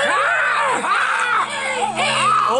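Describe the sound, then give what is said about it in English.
Several people loudly imitate bird squawks as they rise in a courtroom for the judge, shrill rising and falling cries overlapping continuously for a few seconds, raucous, with no ordinary speech between them. “Would everyone please rise and make inappropriate amounts of squawking noises for the Right Honourable Judge Freddy of the Falcons?”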